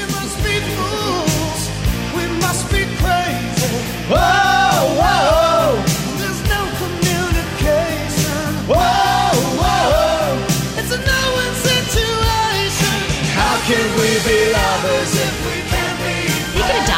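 A recorded pop song plays loud, a male singer belting long, strained sustained notes over a full band with steady drums and dense backing instruments.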